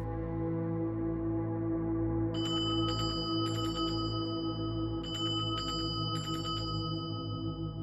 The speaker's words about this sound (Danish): Kort tid efter, så ringer klokken. Det er en forsamlingsklokke.